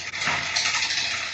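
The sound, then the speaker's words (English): A dog named Joaquin drags a huge bone across the floor, making a steady, fairly loud scraping and rubbing noise that continues without pause. No one speaks. “All right, so he's he was dragging, you know, this huge bone around.”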